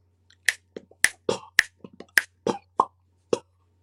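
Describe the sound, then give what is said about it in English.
A rapid series of sharp mouth pops and tongue clicks made with the mouth, tongue and lips, about a dozen crisp percussive hits in an uneven rhythm, fairly loud with no talking. “What if I use human sounds that organically come from my mouth, tongue, lips, like this?”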